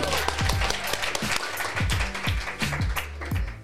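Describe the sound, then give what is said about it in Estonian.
A live audience at a show recording at an education fair in Tartu, Estonia, applauds steadily, a dense crackle of many hands clapping over a pulsing, bass-heavy music beat that thumps regularly underneath for the full few seconds. “tehke aplaus, andke endast märku”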